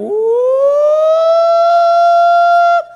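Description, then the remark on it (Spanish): A single loud air raid siren of the kind sounded in Israel during a missile attack wails, rising in pitch and then holding a steady, sustained tone for nearly three seconds before cutting off abruptly, with no talking over it. “En Israel, cuando hay un ataque de misiles, suena”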